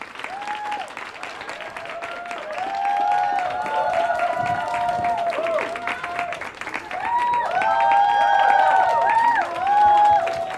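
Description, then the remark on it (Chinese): A church audience applauds steadily for about ten seconds to welcome three people coming up on stage to share, dense, continuous clapping at a fairly loud level, with a bright melodic tone and scattered voices drifting beneath the applause. “我们拍手欢迎他们三个上来。”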